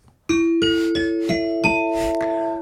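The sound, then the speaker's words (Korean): A bright, ringing chime melody of about six bell-like notes in steady rhythm, each tone sustaining and overlapping the next, the celebratory ding-dong-dang that signals a correct answer on a radio show, clear with no talking. “자, 이렇게까지 해서 딩동댕 받은 분들 알려드릴게요.”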